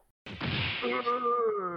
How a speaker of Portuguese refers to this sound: E só um soco bem dado na boca do estômago